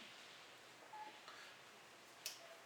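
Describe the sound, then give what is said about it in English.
Faint, short electronic telephone tones from an incoming phone call sound a couple of times over a steady background hiss, with a brief sharp click between them. No one speaks. “Taking phone call.”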